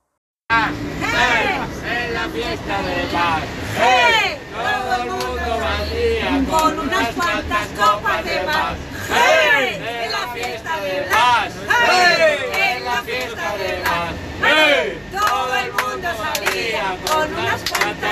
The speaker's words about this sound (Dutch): Oh ja, en eh, als afsluitertje mogen jullie nog even luisteren naar hoe gezellig het was in de bus op de terugweg.